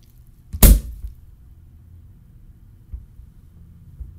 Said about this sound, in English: So I apologize if this is too loud for the Zoom. I'm going to take this cork out. Oh fucking hey cork! I hate you, cork. I hate you so bad.